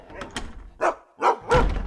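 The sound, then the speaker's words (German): A dog running along a hallway pulling open each door, looking in briefly and moving on: three short, fairly loud bursts of knocking and scraping, spaced unevenly with brief quiet gaps between them. “Warum laufen sie hier durch den Flur, reißen jede Tür auf, schauen kurz rein und trotten dann wieder weiter?”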